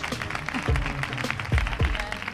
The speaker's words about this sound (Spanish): Un aplauso para ellos, para ellas.